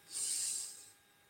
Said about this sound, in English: And I might say, okay, we're going to take three breaths. We're going to breathe in